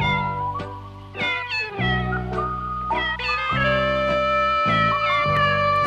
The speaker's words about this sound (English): Uh oh obviously the cat song is really, really good. Yeah, let's hear that again.